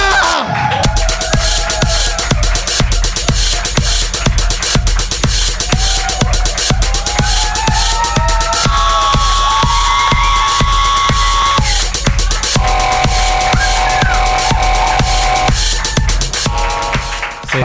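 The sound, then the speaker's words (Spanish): After a call for a big round of applause for a performer, a large crowd claps, cheers and shouts loudly and continuously for nearly twenty seconds, with whoops and yells rising above steady applause and music running underneath. “Se está gritando demasiado.”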